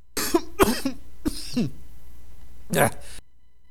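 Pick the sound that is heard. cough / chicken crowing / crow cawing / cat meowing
cough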